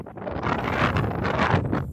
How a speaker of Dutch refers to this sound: Dat was even een windvlaag met heel veel zand. Jullie hebben de full experience.